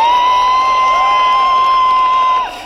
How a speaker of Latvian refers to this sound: Pie Gruzijas galvaspilsētā Tbilisī esošā parlamenta šorīt bija pulcējušies simtiem cilvēku, un to rokās bija manāmi Gruzijas karogi, svilpes un plakāti Mēs esam Eiropa. Un drīz vien laukumu pārņēma gaviles.